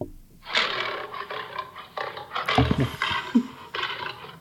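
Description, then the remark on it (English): A few people let out loud, rough roaring shouts in a string of overlapping bursts, voices imitating a big animal's roar with brief pauses between, recorded at the Hesston Public Library. “Roaring. Hear us roar.”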